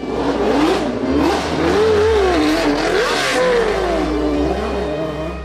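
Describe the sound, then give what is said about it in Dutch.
The BMW engine of a Brabham B52 Formula One race car from the 1983 season revs loudly and continuously, its pitch rising and falling in repeated surges over a low droning rumble, with no one speaking. “Dat is de Brabham B52. Fantastische wagen. Sterke motor, geoptimaliseerd voor snelle pitstops.”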